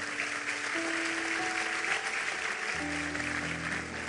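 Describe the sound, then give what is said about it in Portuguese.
An audience applauds steadily, a dense wash of many hands clapping at a constant loud level, while sustained organ or keyboard tones hold underneath and shift to lower notes partway through. “Vamos aplaudir a ele?”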